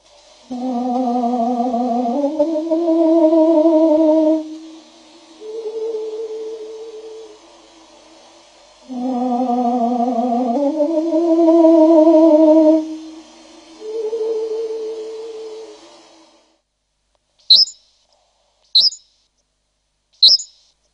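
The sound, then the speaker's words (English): A slowed-down birdsong from a Hungarian recording plays as deep, drawn-out harmonic whistles, two long phrases each ending in a softer tail, followed by three quick, sharp high chirps of the same song at full speed. “Now let's hear the two of them together so your brain can juxtapose them.”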